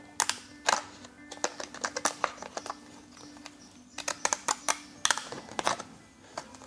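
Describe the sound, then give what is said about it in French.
Special lambrequin scissors snip through white glossy paper to cut out a lambrequin, in a quick series of crisp cuts, irregular but steady, with short pauses between bursts of snipping and no talking. “Et après, avec un ciseau, une paire de ciseaux spéciale à ah l'embroquin, je vais découper, que ce soit à droit.”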